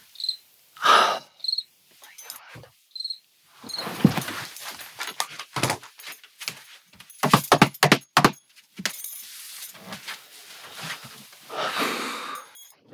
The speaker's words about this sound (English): 5 million crickets. And so for the past two weeks, my whole life has been s- just trying to not absolutely lose control over these crickets. And the thing about a, a, microphone and this microphone is that it picks up everything, right?